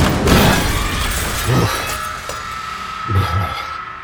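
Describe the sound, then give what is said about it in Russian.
A heavy combat training machine crashes into mirrors, which shatter with a loud, bright crash, followed by scattered tinkling and a couple of smaller bursts as glass shards skitter and settle across the floor, fairly loud. “На пол брызнуло масло, а затем боевой тренажер влетел в зеркала, и осколки разметало по всей самоте.”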